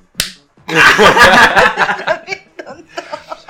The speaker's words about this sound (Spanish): Choca la chiqui.